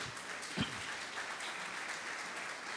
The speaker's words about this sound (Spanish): Dale un aplauso a mis artistas, por favor.